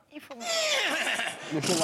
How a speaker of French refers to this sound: Un cheval, oui, ça c'est facile.